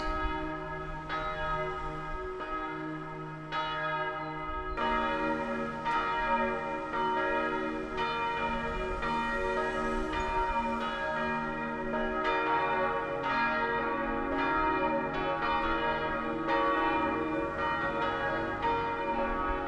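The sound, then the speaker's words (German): A virtual electronic carillon plays a composition by a composer from Bonn, with overlapping bell strikes and ringing tones layering densely and steadily throughout, resonant and fairly loud, with no voices. “Ein virtuelles Glockenspiel, komponiert von dem Bonner Komponisten Michael Dehnhoff.”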